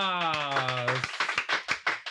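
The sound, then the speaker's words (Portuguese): A drawn-out vocal cheer gives way to a quick, steady run of about nine sharp hand claps, fairly loud, lasting around a second. “Aê, palmas!”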